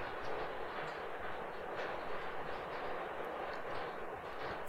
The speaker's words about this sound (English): I don't know if you can hear that. A big uh, hailstorm just came through